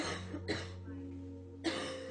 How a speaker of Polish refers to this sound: Żeby je zagłuszyć, zaczęłam kaszleć.